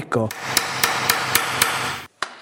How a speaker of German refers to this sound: führt vor, dass es einigen Kraftaufwand benötigt, um aus einem Erlenholzklotz eine Maske zu schnitzen.